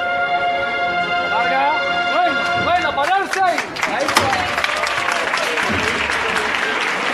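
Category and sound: crowd, street crowd applauding procession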